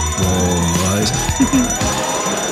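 A loud electronic alarm sound effect plays on its own, with steady buzzing tones and a few sliding, wavering pitches over about two and a half seconds.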